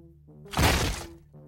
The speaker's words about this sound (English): Okay. Time to kick that door in and storm this building.